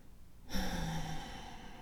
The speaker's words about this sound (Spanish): Solo pon tu intención Toma una respiración profunda.